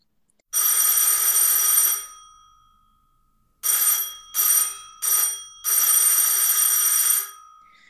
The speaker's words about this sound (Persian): درست همان موقع که زن دکتر در برابر تخت بچه مردش به زانو درآمد و اولین حمله نومیدی بر او تاختن گرفت صدای زنگ در سرسرای امارت به شدت تنین انداخت